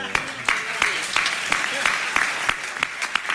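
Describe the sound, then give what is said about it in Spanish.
An audience applauds a flamenco guitarist steadily, a dense wash of many hands with sharper individual claps standing out in a loose, roughly regular pattern, sustained at an even level throughout. “Un aplauso.”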